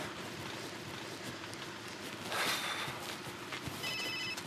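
A telephone rings in two short, high-pitched electronic bursts over a steady wash of background noise, moderately loud, with no one speaking.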